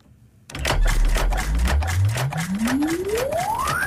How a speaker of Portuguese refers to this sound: Isto já é o som do despertador.